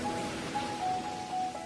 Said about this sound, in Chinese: 听，那是大海的声音。